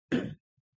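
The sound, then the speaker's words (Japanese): A single short, rough throat-clearing sound, a quick raspy burst lasting about a quarter second, then quiet. No one speaks. “また咳払いします。”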